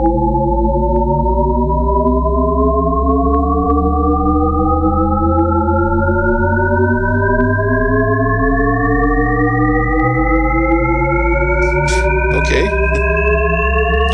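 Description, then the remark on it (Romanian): A Shepard tone: a stack of steady tones glides upward without pause for the whole stretch, sounding like an endlessly rising pitch, with a few faint clicks near the end. “sunet Shepard. Shepard după cel care l-a inventat”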